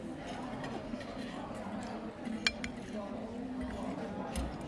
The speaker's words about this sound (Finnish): Se voi olla, että tämän tyyppinen, tota, ää, tämäkin on tämmöinen tutkimuslounasravintola, niin se toimii ehkä tämmöisessä